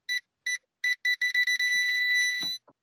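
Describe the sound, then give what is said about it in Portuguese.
A car alarm chirps in a quick series of short electronic beeps as a man starts his car, then holds a long steady tone before cutting off, clear with no talking. “esse barulho que vocês estão ouvindo agora, eu vou deixar na edição, é o João ligando o carro dele, né? Que tem um alarme aqui.”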